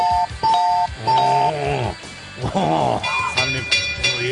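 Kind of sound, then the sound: sound effect, ding-dong chime sound effect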